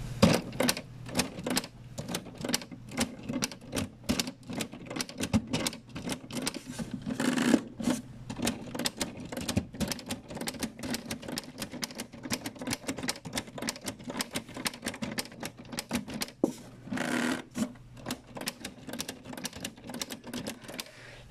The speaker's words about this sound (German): Die kannst du sogar bedienen, wenn du darauf drückst, dann geht das Teil da hinten wie bei einer richtigen Schreibmaschine auch zur Seite.